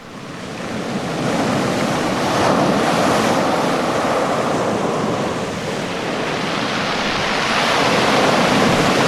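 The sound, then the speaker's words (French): Loud, continuous surf roars, big waves crashing and churning in a broad wash of noise, with wind buffeting throughout and no voices. “de la mer, une grande vague l'emporte très loin.”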